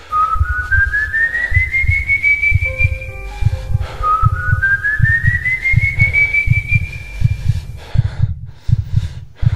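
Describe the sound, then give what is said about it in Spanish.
Two long, rising whistles sound close by, each sliding slowly upward in pitch, over a pulsing low thumping of a pounding heartbeat. “sigues con tu camino, cuando de pronto empiezas a escuchar silbidos muy cerca.”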